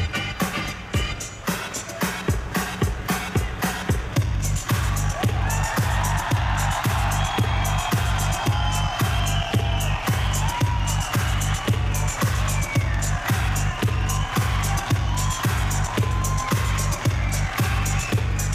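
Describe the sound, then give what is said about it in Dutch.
A live electronic dance track from a 1997 live recording pounds along with a steady, driving four-on-the-floor kick, while a roaring crowd cheers and shouts beneath the music throughout, loud and continuous. “In 1997 brachten ze hun eerste live registratie uit.”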